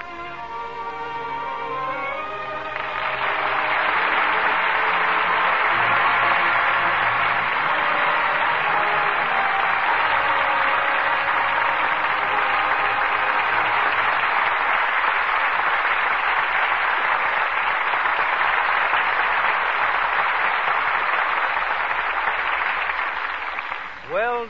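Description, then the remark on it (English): After a brief tonal opening of a few seconds, a theater audience breaks into loud, steady applause for the performances of Joseph Cotten and Ida Lupino, a dense wash of many hands clapping that holds evenly for about twenty seconds without any voices. “deserved applause for two superb performances from Joseph Cotten and Ida Lupino.”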